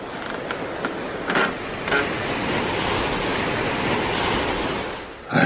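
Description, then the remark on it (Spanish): Water washes steadily around a small boat in a continuous, rushing surf-like noise, with a few faint creaks and knocks early on and a brief swell near the end. No voices. “Dioses del Olimpo, tanta gente para hacer que un pequeño barco se mueva por el agua.”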